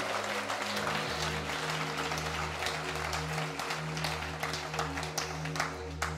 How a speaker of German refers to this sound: Können wir Online-Church und unserem Standort in Hagenow noch einen riesen Applaus geben, die dazu geschaltet haben.